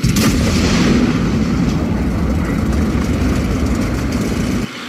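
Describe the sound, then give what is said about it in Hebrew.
A tank cannon fires the second shell in a series at a target: a heavy boom at the very start, followed by a deep, sustained rumble and roar that holds steady for several seconds before dropping off abruptly near the end. “נווה הכריז שהוא טען את הפגז השני בסדרה, וחזר למקומו הבטוח מאחורי המבט. יורד!”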